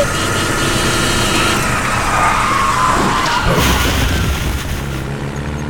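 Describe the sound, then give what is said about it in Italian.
A garbage truck brakes hard, tires screeching in a long skid over a loud rumbling engine, with a thud partway through, steady for several seconds; the braking throws its bags of waste forward. “Frenando il camion ha lanciato in avanti tutti i suoi sacchetti di rifiuti!”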